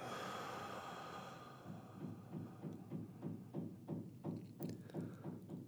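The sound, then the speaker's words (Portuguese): A slow, deep, breathy exhale through the mouth during a relaxation breathing exercise fills the first couple of seconds, then fades into a steady, soft rhythmic pulsing in the background. “Inspirando pelo nariz e soltando pela boca.”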